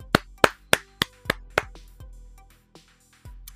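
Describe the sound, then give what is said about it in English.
A quick run of sharp hand claps, about six crisp, loud slaps in a steady rhythm, trailing off into a few softer, scattered claps. No one speaks. “Actually, you can have a fast clap.”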